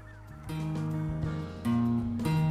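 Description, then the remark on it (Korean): Several swans on the Nakdong River honking together, their overlapping nasal, trumpeting calls forming a loud, continuous chorus with no talking. “그래서 제가 어떤 때는 먹이를 주게 되면 새들이 제 주위를 빙 둘고 둘러싸여 있는 어, 이런 모습을 제가 보게 돼요.”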